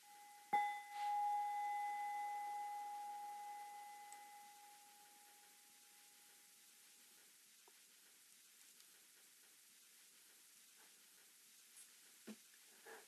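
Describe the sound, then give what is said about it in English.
A bell is struck once and rings with a long, pure tone that slowly fades over several seconds, set against a soft, steady hiss with a few faint clicks afterward. “bells.”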